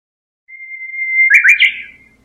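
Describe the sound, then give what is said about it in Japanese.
A Japanese bush warbler sings alone: a long, steady, clear whistled note that rises in loudness, then breaks into a quick, bright, warbling flourish before fading away. “今のはウグイスですね”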